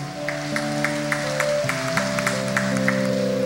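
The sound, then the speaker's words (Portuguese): Steady rhythmic clapping by people from the parishes of the archdiocese applauding their parish at a gathering in Cuiabá, sharp claps landing on an even quick beat, over sustained keyboard-like chords that shift pitch partway through. No one speaks. “Dá uma salva de palmas para a sua paróquia.”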